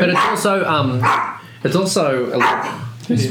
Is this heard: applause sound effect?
no